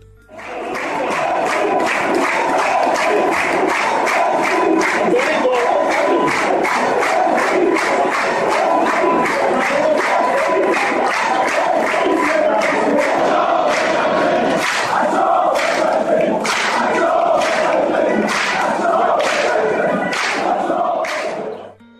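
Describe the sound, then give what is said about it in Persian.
A huge crowd of more than seventy thousand spectators stands and cheers the Persepolis team, roaring and chanting together, loud and sustained, with rhythmic clapping or drum-like thumps punctuating the noise throughout. “ولی وقتی بعد از پایان لیگ و ناتوانی در بردن راهن با اختلاف گل لازم بیش از هفتاد هزار تماشاگر ایستادند و تیم رو تشویق کردند میشد به روند روبه جلوی پرسپولیس امیدوار بود”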